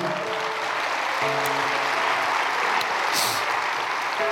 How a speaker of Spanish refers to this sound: Bueno, dale un aplauso a Dios.